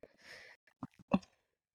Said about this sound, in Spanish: Ay, mira, ya está, está bostezando, está bostezando, está, está extenuado.